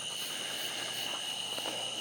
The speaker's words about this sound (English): I'm running with Kona at night down this country road. It's Wednesday night. And you can hear all the tree frogs. I hope you can hear them. I got my phone in a Ziploc. And uh, the cicadas.